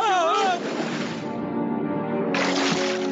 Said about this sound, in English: You left him because I tipped the boat over and ruined the vacation?